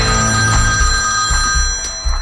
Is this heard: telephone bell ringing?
yes